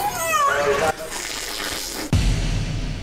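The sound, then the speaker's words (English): A captive orca makes a short, warbling, voice-like call imitating human speech, its wavering pitch rising and falling, followed by a wash of water noise and a low rumbling splash. “I have get a little clip here. Let's listen to what the whale says.”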